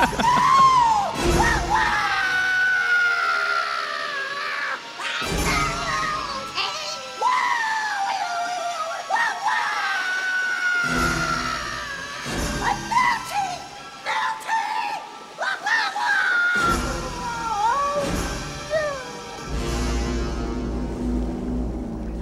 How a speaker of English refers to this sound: Yeah, spray straight at him. And so he melts basically. He pretty much screams everything except for what a world, what a world, which is what I was expecting.